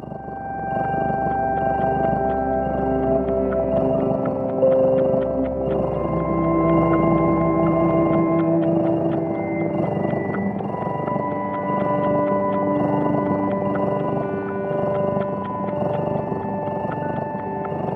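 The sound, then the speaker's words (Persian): Music composed by researchers for cats, within cats' hearing range, with frequencies humans cannot hear and sounds meaningful to cats: slow, sustained tones that slide and overlap in a steady, dreamy wash, with a low hum underneath for the first half. No one speaks. “محققا اومدن یه موسیقی ساختن که تو محدوده صوتی گربه هاست یعنی فرکانسای توش هست که ما نمیشنویم ولی یه گربه میشنوه علاوه بر فرکانسا یه سری صداهایی که برای گربه ها معنادارم بوده توی این موسیقی ها استفاده شده”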